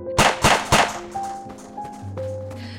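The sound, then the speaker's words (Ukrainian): Three sharp, loud gunshots crack in quick succession as guards fire, followed by a quieter stretch of lingering ringing tones and a low hum, with no voices. “Потім забриніли постріли.”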